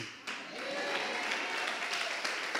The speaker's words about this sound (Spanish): Fuerte ese aplauso, fuerte, fuerte.